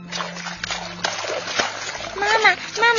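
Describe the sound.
Water splashes and sloshes in repeated bursts of churning spray as a mother bear catches a large trout from a hole in an ice floe, with a low steady hum underneath; toward the end a high, childlike voice rises briefly over the splashing.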